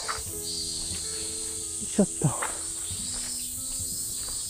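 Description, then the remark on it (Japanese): A steady, high-pitched buzzing drone of cicadas fills the background outdoors, with a person briefly speaking and a few soft thumps over it. “それにしても、セミが、いいに泣いてますね。”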